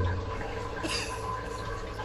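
Steady rushing water from a toilet flush sending a small lizard down the toilet bowl, with a brighter surge partway through that keeps gurgling at a moderate level to the end.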